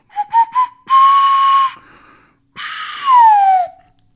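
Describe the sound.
A breathy nose flute plays three quick toots and a held note, then after a brief pause a longer wavering note that slides downward. It is fairly loud, with no talking.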